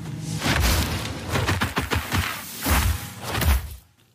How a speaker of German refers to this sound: Das eine ist eine sieben Sekunden lange Szene, äh, fiktiv, nicht aus einem bestimmten Spiel, wo so ein Kuttenmagier einen Feuerball beschwört und wirft